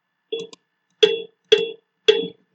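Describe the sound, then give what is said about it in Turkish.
An ordinary acoustic cowbell as used in music, struck four times, the first a quick double tap, then three evenly spaced, ringing metallic clanks with short decays, clear with no talking. “Normal bir inek çanı müzikte kullanılan”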